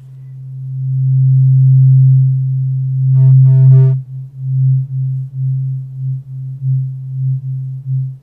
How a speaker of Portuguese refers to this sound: Também tava escutando o som do diapasão, inclusive.